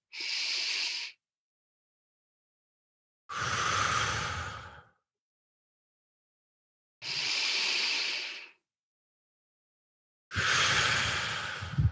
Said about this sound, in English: I'm drawing a box with my breath, right? Inhale, hold, exhale, hold.